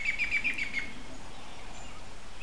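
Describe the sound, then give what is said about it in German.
A quick series of about six high, bright chirps from birds sitting in tree branches a few meters overhead, among firs, birches, pines and beeches, in the first second, fading off, over a soft steady background hiss. “Vögel sitzen in den Zweigen und zwitschern ein paar Meter über dir ihre täglichen Lieder.”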